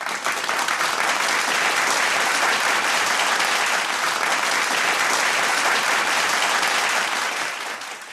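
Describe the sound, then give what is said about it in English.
Steady, dense canned applause sound effect played from a button, loud and continuous for several seconds before tapering off slightly at the end, with an even, effect-like quality and no voices. “It's like old time radio with the uh, the special sound effect.”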